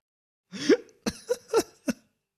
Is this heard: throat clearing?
yes